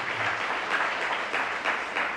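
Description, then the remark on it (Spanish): Sustained applause from a crowd, given as applause to the Lord of glory, a dense steady wash of many hands clapping at a fairly even loudness with slight swells, and no voices heard over it. “En un aplauso al Señor de la gloria.”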